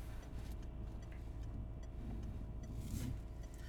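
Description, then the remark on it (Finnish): A heavy city bus rumbles by on a street in central Oulu, its deep engine drone steady throughout and swelling slightly toward the end, with no one talking. “Anna tuo bussi, joka menee mm.”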